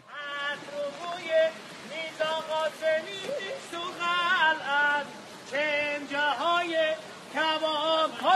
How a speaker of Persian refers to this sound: و حالا شما فکر کنید در ابتدای مسیرتون یک فردی با این صدای زیبا براتون میخونه